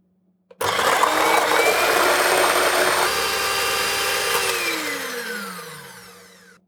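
An electric hand mixer whirs steadily, beating egg whites until stiff, a loud motor drone with a rattling whisk texture, then winds down and fades as it is switched off. No one speaks.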